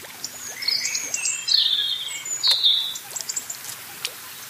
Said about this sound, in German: Entspanne dich und genieße das Plätschern des Sees und das Singen der Vögel.